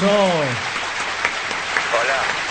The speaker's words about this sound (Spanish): Un aplauso.